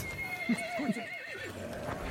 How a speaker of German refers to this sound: Und dann nimmt man das Pferd und dann reitet man in die Schlacht.